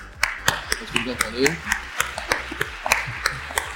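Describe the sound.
Steady, rhythmic clapping, sharp claps landing a few times per second as a small audience applauds a company group president being welcomed, with a voice briefly audible underneath.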